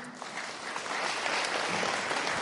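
Steady audience applause, a dense crackle of many hands clapping that swells slightly and holds at an even, fairly loud level throughout, with no voices standing out, welcoming two guests.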